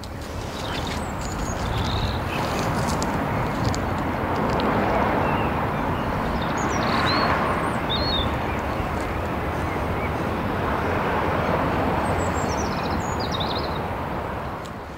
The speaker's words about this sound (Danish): Øh, rødhalsen er også begyndt... Hey, det er den, man hører i baggrunden nu. Ja.